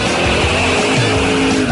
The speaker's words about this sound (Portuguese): Gilberto, roda a vinheta. Agora é na Band News, Band Motores, com César Bresolim.